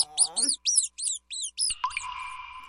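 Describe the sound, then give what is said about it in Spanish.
A quick run of about six shrill, high-pitched squeaks from laboratory mice, fairly loud, ending in a sustained whistly tone, with a brief voice underneath at the very start. “Ratones de laboratorio.”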